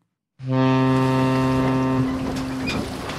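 A single loud, deep boat horn blast holds steady for about a second and a half, then cuts off and leaves a rumbling, noisy wash of background sound.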